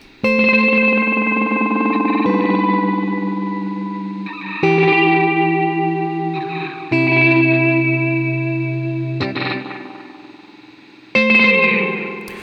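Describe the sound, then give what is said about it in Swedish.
Sustained electric guitar chords wash through a multi-tap delay pedal with all four repeats running, repeats piling up into a thick, shimmering, reverb-like tail that swells with each new strum and slowly fades between them. “om man då drar igång alla fyra, då får man vara lite försiktig för att då börjar repeatsen dra iväg lite grann.”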